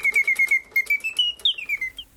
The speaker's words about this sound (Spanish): En primer lugar, hay una característica en casi todos los autómatas, y no es que solamente tengan movimientos propios, sino que los autómatas generalmente hacen música mecánica. Ahí está, por ejemplo, el pajarito cantor,